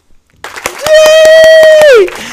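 Around eight sharp, loud hand claps right up close in a quick, steady rhythm, while a voice holds a long, high excited squeal over most of them.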